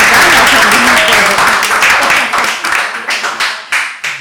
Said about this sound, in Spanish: están haciendo como que aplauden